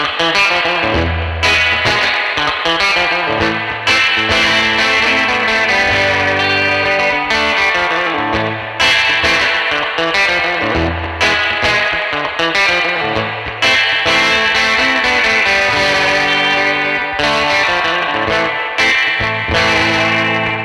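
A loud, rhythmic electric guitar part played through a Surfy Bear spring reverb with sustain and gentle compression, the springs turned up heavily so they crash and splash on the strummed chords over about twenty seconds, no voices.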